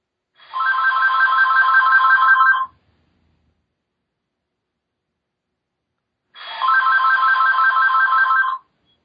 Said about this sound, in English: There went the phone. That's okay. We'll just, we'll, we'll, we'll roll, roll through it. Okay. I'll, I'll just pause until it stops.